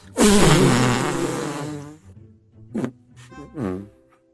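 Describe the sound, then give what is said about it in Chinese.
A stink bug releases gas: a long, loud, buzzing fart-like blast sputters for nearly two seconds, followed by a few shorter, softer squeaky puffs trailing off. “放出了一股臭气。”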